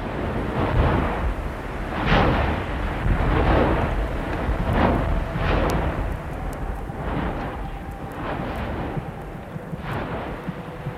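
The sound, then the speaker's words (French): Volcanic eruption explosions at Stromboli: a steady deep roar punctuated by several heavy, booming bursts, loud and continuous with no voices. “Le magme est tout près, il y a plein de gaz assez fort, et alors, à travers ces gaz, on arrive à prévoir qu'il normalement il doit y avoir une éruption bientôt.”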